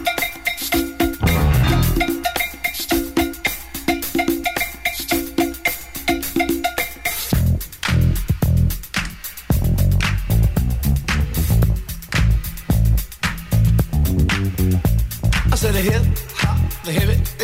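The instrumental disco groove intro of an early hip hop track plays loud, opening with a sparse, repeating riff and light percussion before a full band with driving bass and steady drums kicks in.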